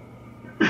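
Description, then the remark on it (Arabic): A single sudden sneeze bursts out at the very end after a stretch of quiet room tone, sharp and cut off abruptly. “رحمك الله”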